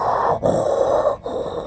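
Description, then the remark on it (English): A voice imitates the breathing of a CPAP machine during sleep, with two long, loud, airy rasping breaths, each broken by a brief pause, in a steady mechanical rhythm. “You know, those breathing machines? Mm-hmm. Sounds like this when you're sleeping.”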